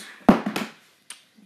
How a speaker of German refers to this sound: Ups, das war mein Handy runtergefallen.